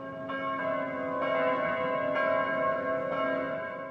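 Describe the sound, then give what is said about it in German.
Church bells ring steadily and loudly, with repeated strikes roughly every second layered over a sustained, humming wash of overlapping tones. No voices are heard. “Faszination Kirchenglocken”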